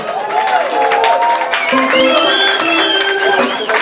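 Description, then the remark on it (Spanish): Loud, steady applause from a concert crowd for the keyboard player, mixed with cheering and shrill whistles that rise and fall throughout, sustained for a few seconds. “Un aplauso para ella.”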